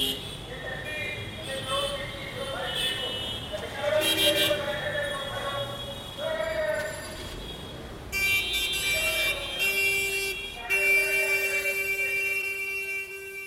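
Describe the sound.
Busy street traffic with car horns honking repeatedly, several overlapping toots of different pitches, some long and sustained, over a steady rumble of engines and distant murmuring voices.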